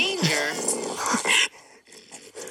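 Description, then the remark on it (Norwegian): Raccoon calls from a YouTube video play back loud for about a second and a half, a mix of shrill whiny chitters and low growls, then fade to quieter, scattered murmurs. “Sånn er, eh, sånn er vaskebjørnlydene.”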